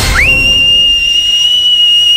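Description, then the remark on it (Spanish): A single loud, sustained human whistle that sweeps quickly upward at the start, then holds one steady high pitch for about two seconds, with a faint overtone above it and no talking. “De un extremo ves, o sea, ni siquiera ves, escuchas un silbido.”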